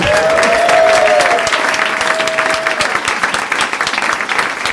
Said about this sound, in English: I'm the creator of the Nerdist Writers Panel, and I'm thrilled to have with me today John August and Craig Mazin from Scriptnotes. Give them a round of applause.